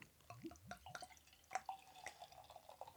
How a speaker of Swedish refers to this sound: Den hälls upp här med ett väldigt härligt kluckande.